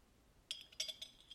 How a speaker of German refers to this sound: Wenn es hier so ein bisschen klinkert, dann ist das mein Eiskaffee mit meinem Glasstrohhalm im Glas.